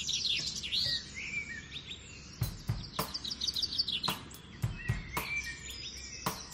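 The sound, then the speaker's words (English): Birdsong at the opening of a song: birds sing continuously with high, bright chirps and trills, while sharp knocking clicks break in irregularly through the middle and later part. No one speaks. “And I'm assuming this is the song that starts with uh, some bird song.”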